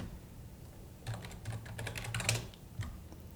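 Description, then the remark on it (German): A quick burst of typing on a computer keyboard with a German layout, fairly quiet, with rapid irregular key clicks for about a second and a half, then a final isolated tap. “Dass du, haha, die deutsche Tastatur verwendet genau, hast.”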